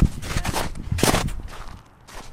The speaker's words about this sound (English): It's not a very steep hill, but it's more about the traction that we're facing right now. There's snow crunching underneath our feet.